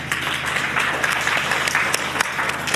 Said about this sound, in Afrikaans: kom ons gee vir hulle 'n lekker hande klap.